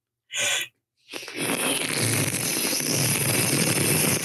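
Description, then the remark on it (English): A voice imitates hissing, wind-like sand: a short sharp breathy burst, a brief pause, then a loud, steady rushing hiss that holds for about three seconds. “Behind them, he heard the hissing like wind, like a rip tide where there's no water. Do the sound for me”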